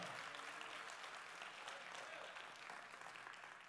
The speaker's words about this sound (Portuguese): Amém. Aplauda o Senhor.